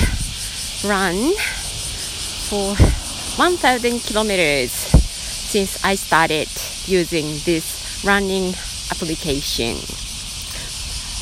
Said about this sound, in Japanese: セミの声がまだうるさいえー、河川敷にいます